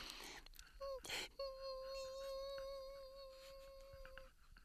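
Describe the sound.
A voice imitates the high-pitched electronic hum of microchips, holding a steady, thin tone for about three seconds after a brief breathy start.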